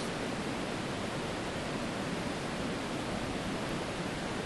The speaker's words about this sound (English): And just like this river is going to slam into a diversion dam about 3k further downstream, about 100 meters lower. We're at uh, 1450 here. It falls very rapidly.